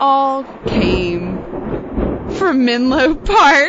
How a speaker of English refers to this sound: I'm so sorry about the thunder. The thunder's making me think that these are not good ideas.